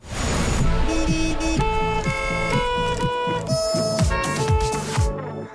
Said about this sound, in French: on est quand même complètement fan de ce jingle marseillaise à base de klaxon.